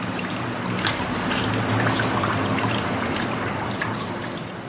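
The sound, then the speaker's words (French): Water pours from a ladle in a steady, moderately loud trickle, with light splashing and small droplet patters throughout, as the water left in the ladle is poured over its handle after rinsing the hands. No voices are heard. “Et puis enfin, vous versez l'eau qui reste sur la poignée.”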